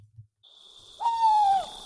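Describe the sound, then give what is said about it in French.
An owl, a nocturnal bird of prey, gives a single clear hooting call that slides downward in pitch, fairly loud, heard on its own with no talking, preceded by a faint high steady tone. “sur les chants écrits des rapaces nocturnes.”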